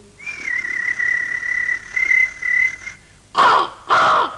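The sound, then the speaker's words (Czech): A long, steady, thin whistling bird note holds for a few seconds, then two loud, harsh crow caws ring out, one right after the other. “mezi ptáčky pěkně projít”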